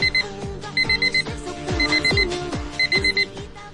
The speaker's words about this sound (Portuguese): Eu vou ligar aqui o meu despertador de 1,99 que a minha tia comprou na Lapa